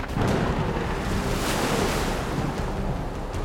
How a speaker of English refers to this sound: Water as far as you can see, dark clouds above, just on a raft, clinging to the mast. Six foot waves at least crashing over the deck of this little ramshackle raft.